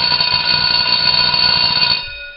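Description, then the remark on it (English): A loud electric school bell rings continuously with a harsh metallic rattle for about two seconds, then cuts off abruptly. No voices are heard. “The bell doesn't dismiss you guys.”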